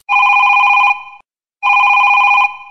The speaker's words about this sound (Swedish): Hey, answer the freaking phone!